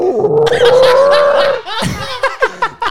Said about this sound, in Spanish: ¿Escuchas eso? Son sus Top tripas. rugidas de tripa, güey. No lo escucho. Güey, escúchalo. Oh mames, pinche rugidón de tripas. Sonó de repente.